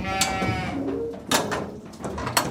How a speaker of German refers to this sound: Diese Schafe müssen heute für eine Stunde in die Versuchskammern der Forschungsfarm in Invercargill im Süden Neuseelands.